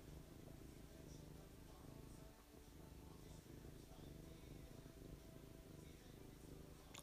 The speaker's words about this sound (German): Sie strahlt so viel Liebe und Wärme aus und das Schnurren noch dazu. Es ist einfach herrlich.